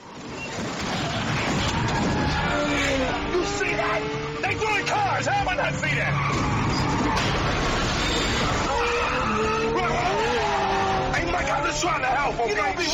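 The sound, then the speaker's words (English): A loud, chaotic movie car chase scene: villains on a commandeered truck throw cars from its cargo at a pursuing Ferrari; roaring engines, screeching tires and crashing, shattering impacts pile up continuously, with voices shouting underneath the action. “there are the bad guys that are that have commandeered a truck with a bunch of cars as its cargo and in order to stop uh, the pursuit of the ferrari they start basically throwing cars at them”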